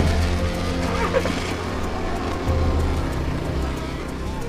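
Steady car traffic rumbles past, a continuous low engine drone with tire noise that swells slightly as vehicles go by, without pause for the whole stretch.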